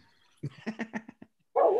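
A dog barks in a quick run of about six sharp yaps, followed after a brief pause by a louder, drawn-out bark or howl at the end.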